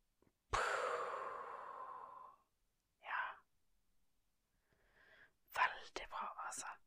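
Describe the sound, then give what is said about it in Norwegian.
A long, deep breath in during a breathing exercise, lasting nearly two seconds, followed by a short second breath and then a cluster of soft, whispery breathy sounds near the end. “Pust godt inn.”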